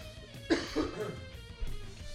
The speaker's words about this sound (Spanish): no, es que hace, como una hora, güey, que me tengo aquí a un pedazo de pinche cacahuate, güey. No, me está haciendo toser y toser, güey, me pica la garganta.